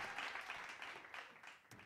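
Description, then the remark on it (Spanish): A short burst of applause, a dense crackling patter of many hands clapping at once, holding steady for a moment and then thinning out. No one speaks over it. “Un aplauso a Norma que apoya todos los productos del canal, de veras muchas gracias.”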